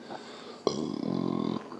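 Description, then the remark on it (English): A single loud burp after drinking coffee erupts abruptly and rumbles on for nearly a second with a gravelly, rattling texture before cutting off. “excuse me, coffee burp.”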